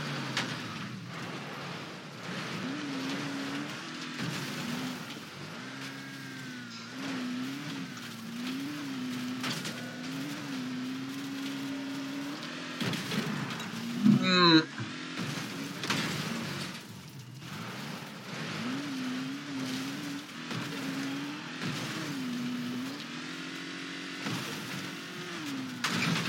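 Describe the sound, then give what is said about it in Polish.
A car engine drones steadily throughout, its pitch rising and falling as it accelerates and shifts, with a brief burst of tire squeal and clatter near the middle, like driving in a video game. “A ty tak, już jedziesz sobie.”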